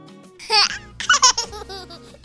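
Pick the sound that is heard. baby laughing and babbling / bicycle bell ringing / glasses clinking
baby laughing and babbling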